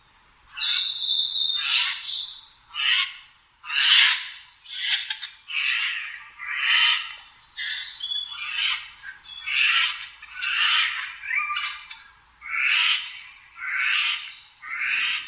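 Eurasian jay calls: a steady series of about a dozen harsh, raspy squawks, each roughly a second long, repeated at a fairly regular pace with no talking.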